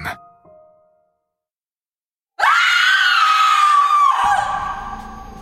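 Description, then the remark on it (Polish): A sudden, loud scream erupts after a short quiet stretch, a single sustained shriek lasting about two seconds before breaking off into a rough, fading trail. “Krzyk otworzył mu oczy.”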